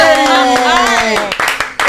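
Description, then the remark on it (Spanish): Applause: a quick run of sharp hand claps over about two seconds, mixed with a loud, sustained voice shouting or cheering on top. “¡Aplaudimos todos!”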